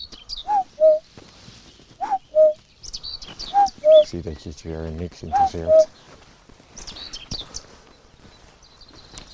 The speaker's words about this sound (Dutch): Oh, braamsluiper.